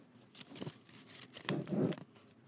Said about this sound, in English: I am making paper balls. I'm making paper balls. You're gonna make paper balls.